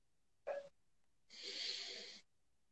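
A short, sharp intake of air is followed by a longer, steady deep breath with a soft airy hiss during a breathing exercise. No one speaks.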